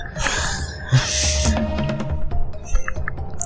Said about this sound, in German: Als nächstes kommt ein Boss-Theme. Ja, geil. Und zwar Koala Kong.